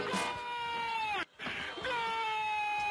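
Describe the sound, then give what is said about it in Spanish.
A baby cries in two long, loud, drawn-out wails that sag slightly in pitch, separated by a brief breath-like pause, with no talking. “Y ahora viene, y ahora viene el llanto.”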